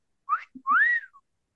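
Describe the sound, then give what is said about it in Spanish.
A person whistles two quick calling notes: a short rising chirp, then a longer, louder note that slides up and falls away, clear with faint low breathy sounds between. “A ver, ¿cómo se chifla?”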